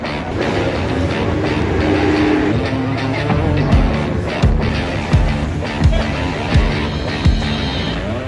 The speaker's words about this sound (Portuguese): Não é, não é todo dia que você fica assim, tipo, a um metro de distância dos carros de Fórmula 1 funcionando, tá bom?